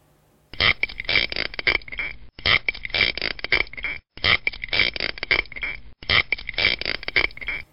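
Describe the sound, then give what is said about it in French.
Spiny lobster rasps: four long bursts of rapid, creaky scraping, like wood grating on wood, repeated in an identical rhythm with brief silent gaps between them, loud. “Donc là, on a une séquence rythmique avec un schéma qui est répété à l'identique et un son qui ressemble à un raclement de bois un peu grinçant.”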